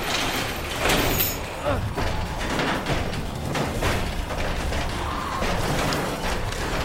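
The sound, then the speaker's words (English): A garage door in an auto shop is hauled open by its chain, a loud, continuous clatter of rattling links and grinding metal with uneven jerks as it is pulled for several seconds. “Grab the chain. Hurry. Pull the garage.”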